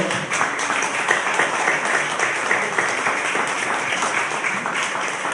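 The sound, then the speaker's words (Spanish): Sustained applause from an audience for a couple at a religious ceremony after they embrace and kiss, a dense, steady crackle of many hands clapping at once, holding an even loudness for several seconds with no voices standing out. “Un aplauso, por favor.”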